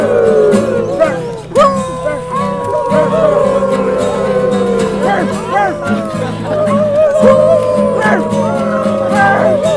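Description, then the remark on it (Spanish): A concert audience howls together at the performer's invitation during a song: many overlapping, wavering voices in long sliding wolf-like cries that rise and fall, loud and continuous for about ten seconds over a steady low hum. “Bueno, si quieren aullar es el momento.”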